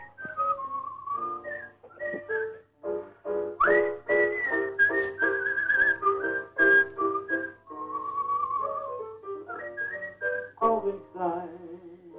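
A whistled melody plays for about twelve seconds, clear and tuneful with steady phrasing and short gaps, accompanied by a faint background of music beneath it.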